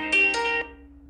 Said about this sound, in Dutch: Ja, net ehm, live. mijn telefoon ging.